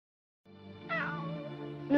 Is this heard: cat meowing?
yes